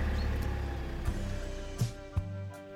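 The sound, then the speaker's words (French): A car engine rumbles steadily with a deep, droning hum, broken by a few short knocks and thumps as the car starts and gets moving. “Et puis, la voiture démarra enfin.”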